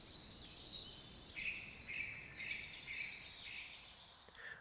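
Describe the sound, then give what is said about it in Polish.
A dense meadow chorus of insects chirping and buzzing, with steady overlapping high-pitched trills repeating in short bursts over a constant background hiss, continuous with no voices. “No jest tam cała masa owadów, która śpiewa, brzęczy i wydaje różne odgłosy.”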